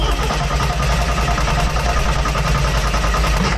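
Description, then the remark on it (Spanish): A car engine churns for several seconds without catching, giving a loud, continuous low mechanical rumble with rapid, even pulsing and no voices. “Ingas, ya no prendió esta marca.”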